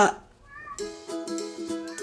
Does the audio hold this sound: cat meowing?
yes